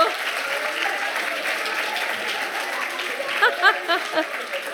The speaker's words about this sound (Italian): Applauso, applauso di incoraggiamento.